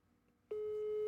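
After a quiet start, a loud, steady telephone ringback tone of an outgoing phone call begins halfway through and holds one unbroken pitch to the end, with no voices.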